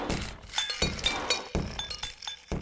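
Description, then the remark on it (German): Several different drinking glasses clink together in quick, uneven succession, bright ringing taps with short resonant tails, fairly loud, with no voices. “Und sofort liefen die anderen zum Kühlschrank, um verschiedene Gläser erklingen zu lassen.”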